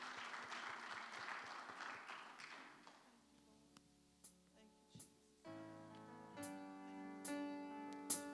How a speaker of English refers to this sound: Let's give the Lord a mighty hand clap as they lead us in worship.